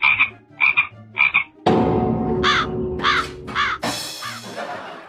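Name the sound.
frog croaking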